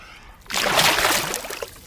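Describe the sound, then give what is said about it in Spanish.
Water sloshes and splashes loudly for over a second, like a body moving through and rising out of water, then trails off into drips and trickles. “Se metió al agua y acaba de salir, muy bien.”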